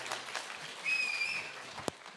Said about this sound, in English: So what a fantastic morning. Give them another round of applause as they head off.